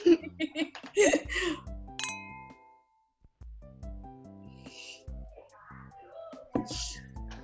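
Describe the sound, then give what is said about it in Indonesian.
A single bright clink of glasses in a toast rings out briefly, surrounded by cheerful laughter and people chatting. “nah, cheers dulu buat yay cheers.”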